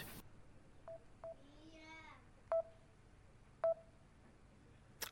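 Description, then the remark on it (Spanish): Short electronic telephone tones of an incoming phone call beep four times at uneven intervals, two of them louder, with a brief faint voice-like warble in between and a quiet background hiss. “No, ellos me llaman. Ah, Me están llamando.”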